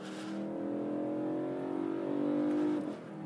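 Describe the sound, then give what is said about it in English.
The 4-liter V8 engine of a BMW E90 M3 revs hard on the Laguna Seca track as the sun burns off the fog, holding a high, rising growl with steady harmonic tones climbing and then dropping as the throttle lifts near the end. Loud, with no one talking. “The 4 liter V8 and the E90 M3 is just astounding.”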